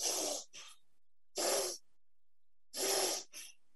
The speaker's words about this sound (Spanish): Sujetándolo así, simplemente sujetando como si estuvieras apretando, inspiras y expiras por nariz